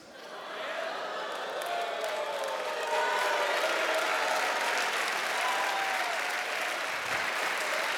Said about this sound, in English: half the church is clapping, half are so mad right now.